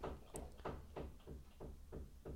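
Hammering: a steady run of about seven sharp blows, evenly spaced roughly three per second, each a dull knocking thud with a brief ring, and no voices.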